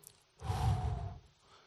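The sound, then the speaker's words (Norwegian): A single forceful breath is blown out, a breathy whoosh lasting about a second before trailing off into quiet. “Som det står om Jesus, så pusta han på dem”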